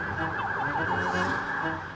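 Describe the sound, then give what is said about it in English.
Emergency vehicle sirens yelp in rapid, repeating rising-and-falling sweeps, loud, over a steady wash of city street traffic noise on a long street in downtown Lima, Peru. “Yeah, again, noisy. Sirens.”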